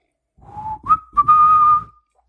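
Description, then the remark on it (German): Someone whistles the opening of the wedding march: a short run of clear, steady notes, starting low, then stepping up to a long sustained higher tone, with no talking. “Da war gerade Hochzeitsmarsch.”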